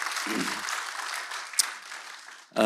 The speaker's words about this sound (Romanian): Hai să aplaudăm că sunt cei mai tineri aici.